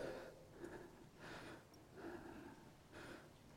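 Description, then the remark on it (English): A person demonstrates short, shallow upper-chest breathing: about four quick, airy breaths in steady succession, with no talking. “We do upper chest breathing. And we kind of breathe like this.”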